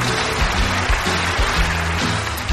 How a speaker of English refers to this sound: Yay, cue applause.